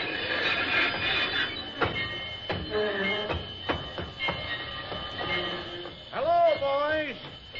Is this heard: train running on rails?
yes